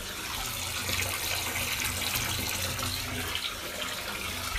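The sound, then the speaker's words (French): Water runs steadily into a bathtub, a continuous rushing and splashing that holds an even level throughout, with no voices. “Je vous propose un podcast dans mon bain.”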